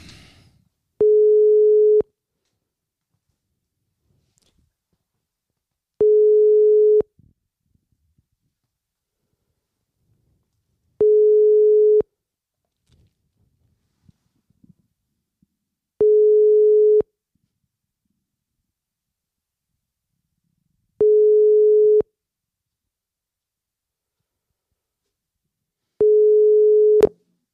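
A telephone tone after dialing a number: a steady mid-pitched tone sounds six times, each lasting about a second, separated by long, even pauses. No voices are present.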